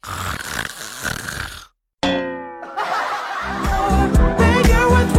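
A voice imitates a student's loud snoring in a classroom, humming like a train entering a tunnel: rough, buzzing, droning snorts in a few bursts, with a brief pause of silence partway through before the rasping resumes, louder and more ragged.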